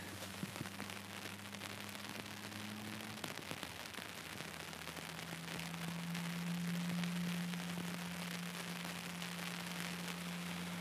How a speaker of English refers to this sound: so now the rain just really picked up here